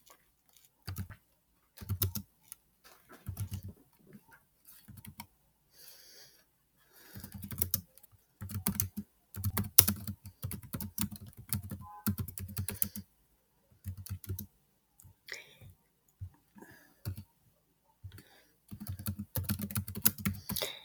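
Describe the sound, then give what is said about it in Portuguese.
Rapid typing on a computer keyboard while writing a quick reply, with bursts of quick clacking keystrokes separated by brief pauses, fairly loud with no talking. “Ah, vou responder aqui o Camuji rapidinho.”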